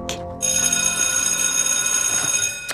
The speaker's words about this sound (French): La sonnerie de l'école.